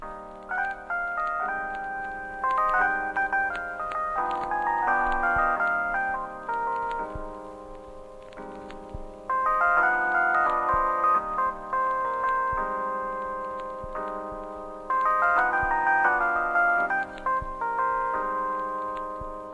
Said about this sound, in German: Und jetzt passend dazu kommt der … von ….